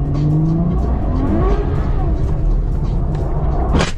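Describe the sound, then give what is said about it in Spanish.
A car engine loses power and cuts out mid-skid as the car's rear slides and the startled driver lifts off the accelerator; its loud, wavering drone slides downward over rumbling road noise, with a sharp burst of tire noise just before the end. “Mira cómo, se apaga el motor, ¿viste?”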